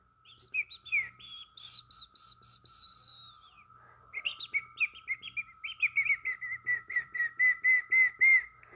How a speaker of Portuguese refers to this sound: Lá, os pássaros cantavam músicas que encantavam a todos que por ali passavam.